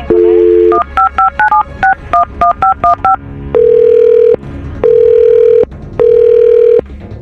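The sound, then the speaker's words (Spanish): A telephone number is dialed live on the radio show Al aire con el terrible: a brief dial tone, then a quick run of about a dozen short touch-tone beeps at varying pitches, followed by three long, steady ringing tones. No one speaks. “Espérame, vamos a marcarle.”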